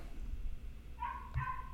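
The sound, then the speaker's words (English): A puppy barks from upstairs in the house, letting out faint, high-pitched, drawn-out yelps in a short burst against low background noise. “We got a puppy barking upstairs.”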